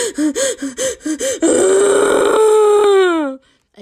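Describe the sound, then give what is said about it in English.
A voice loudly imitates a girl sobbing at the end of a sad movie in a movie theater: about six quick, catching gulps in a rhythmic burst, then one long, strained wail that slowly falls in pitch before cutting off. Loud, with no other talk. “But I was literally bawling so hard and I was just like sobbing.”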